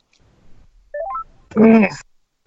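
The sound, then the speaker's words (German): A quick rising run of electronic beeps, like an outgoing call being dialed, plays clearly as someone is invited into a conference call. A voice then speaks briefly, loud. “Wenn ich jetzt hier auf den Namen gehe und dann zu Konferenz einladen. Weil der hat es auch mal verdient, in der Sendung aufzuschauen. Vielleicht geht er ran.”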